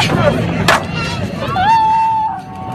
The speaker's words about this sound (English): was a little sound of when people were being reunited today at Hill Air Force Base. Boy, an amazing thing.